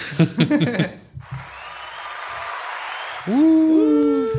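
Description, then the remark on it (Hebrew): A voice speaks briefly, then a couple of seconds of steady, dense hand clapping like crowd applause, ending as bright rising musical tones take over. “יש פה גם מגיעות כפיים.”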